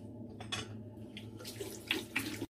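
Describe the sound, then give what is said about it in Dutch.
Lukewarm water runs steadily from a tap into a sink, with splashing bursts as hands scoop it to rinse soap off a face, no voices. “Het afspoelen doe ik met een beetje lauw water.”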